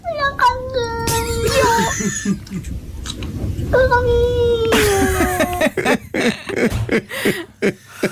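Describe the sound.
A cat meows twice, each a long, drawn-out cry that slides downward in pitch, fairly loud, with voices and laughter murmuring underneath and afterward.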